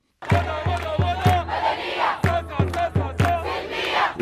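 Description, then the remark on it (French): Thousands of protesters in Khartoum, Sudan, chant slogans against military rule in unison on a Thursday, loud, with sharp rhythmic beats, like claps or drum hits, punctuating the chant at a steady pace. “Des milliers de manifestants ont scandé jeudi non au pouvoir militaire”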